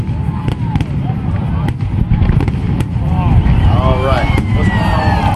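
Fireworks going off in quick succession, sharp bangs and crackles scattered over a steady low rumble, with rising whistles streaking up near the end.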